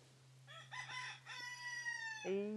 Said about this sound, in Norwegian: Ja, veldig stolt hane her. Og den ene hanen der, han galer altså da et døgn rundt, nesten, tror jeg.